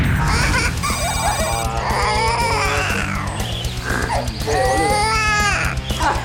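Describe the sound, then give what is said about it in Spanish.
A parrot mimics a crying baby, giving loud wailing sobs in repeated rising and falling bursts, with a steady high-pitched ringing tone sounding in the background throughout. “un loro que llora como un bebé. Impactante parecido con el llanto de un bebé.”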